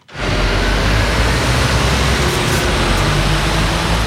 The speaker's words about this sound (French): Ce bruit, celui de la route et des bus qui fonctionnent avec un moteur thermique, ne semble pas déranger l'UDC Fribourg et son président Christophe Blaumann.